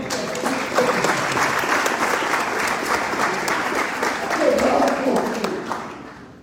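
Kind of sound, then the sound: crowd, audience applause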